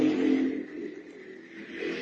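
A motorcycle engine revs as it passes outside, a steady droning roar that dips slightly in the middle and swells again, fairly loud, with no voices.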